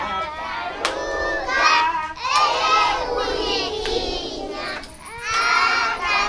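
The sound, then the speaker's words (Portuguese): A group of children at an SOS Children's Village programme in Huambo province, on all fours on the floor, sing the tortoise song together in high, bright voices, phrase after phrase with short breaths between, fairly loud and continuous throughout. “As crianças estão de gatas no chão e cantam a canção da tartaruga”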